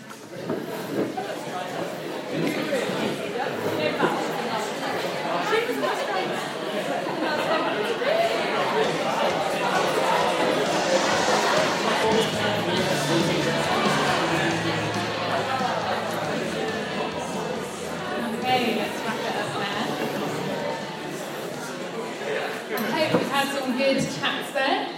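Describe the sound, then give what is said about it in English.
Many people talking at once at their tables, a steady overlapping murmur of many conversations with no single voice standing out, sustained and fairly loud throughout; they are chatting about what they wanted to be when they grew up. “Um, so you've got a few minutes on your tables just to chat a little bit about, um, yeah, what did you want to be when you grew up?”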